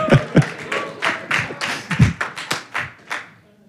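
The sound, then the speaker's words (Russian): Hands clapping in a church, in a loose, uneven rhythm, about a dozen sharp claps over a few seconds that fade slightly toward the end, with no voices. “Знаете, в нашей церкви я хочу, чтобы мы праздновали, хлопали людям, которые делают добрые дела – чтобы мы поддерживали таких людей”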